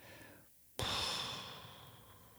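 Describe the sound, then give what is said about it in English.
After a brief hush, someone abruptly blows air out through pressed lips, mimicking a deflating balloon: a breathy hiss that slowly fades over a second or so, with no talking. “Blow the air out of your mouth, push your lips together, and make a sound like a balloon letting out all the air.”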